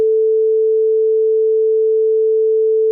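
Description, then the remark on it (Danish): A steady, unbroken telephone ringing tone on an outgoing call to a number in Poland, one clear mid-pitched hum holding at constant loudness for about three seconds, with no voices over it. “Du bliver bare ved med at kime den ned.”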